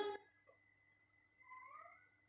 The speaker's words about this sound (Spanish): ¿Será que están un maullando solo en el patio, ¿por qué? Mmm, estará solo.